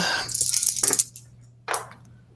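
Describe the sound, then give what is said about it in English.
Dice clatter and tumble across a hard surface in a quick burst of sharp clicks, followed after a short pause by one more bright rattle, with a faint steady hum underneath; the dice are rolled for a firearms roll in a game. “Oh, another six. Oh These Civil dice are on fire.”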